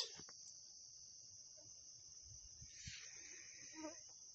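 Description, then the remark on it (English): Crickets chirp before dawn on a steamy morning on top of a hill in a steady, continuous high trill that fills the still air, with a faint rustle and a brief soft bird-like call near the end. “The, the crickets don't quite want to give up the night.”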